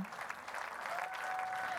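Steady applause in a recording of the multi-hour theatre performance Bražji triptih, with performers and audience clapping, a dense wash of many hands clapping at an even level throughout, with a faint thin whistle-like tone rising briefly in the second half.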